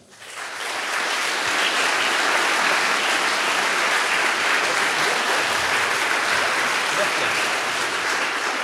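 Steady audience applause fills the whole stretch, a dense, even clatter of many hands clapping that swells quickly at the start and holds at full strength throughout, with no voices standing out.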